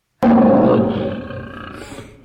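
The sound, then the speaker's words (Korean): A single loud tiger roar bursts in abruptly, deep and rumbling, then slowly fades out over about two seconds with no voices present. “이튿날 밤 호랑이가 와서 크게 울자 김 씨가 또 문을 열고 지팡이를 짚고 서서 말하기를”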